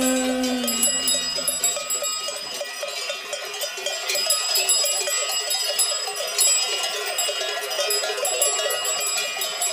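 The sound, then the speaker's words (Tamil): A steady jangle of metal neck bells, like those on bulls, rings continuously with bright, high, overlapping tones and no pause in the clattering rhythm. “வெள்ளி காளைங்க கழுத்து மணி கேக்கையில நமக்கு அது கோயில் மணி”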